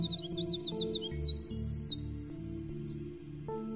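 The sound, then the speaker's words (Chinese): Nightingale song in quick, high, twittering trills and repeated chirped phrases, layered over a steady low musical backing with soft pulsing notes; no one speaks. “夜莺为橡树唱了一首歌，它的歌声就像银罐子里沸腾的水声一样，那么清脆好听。”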